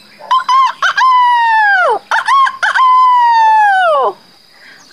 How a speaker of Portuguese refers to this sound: Cuando Alabama estaba na sua posición de yoga favorita, a Domuca, cachorro que olha para baixo, o galo Cirilo cantou.